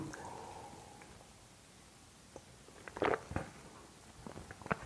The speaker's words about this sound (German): Und jetzt treffe ich erstmal die Entscheidung, ein Glas Wasser zu trinken.